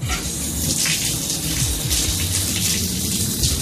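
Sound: water splashing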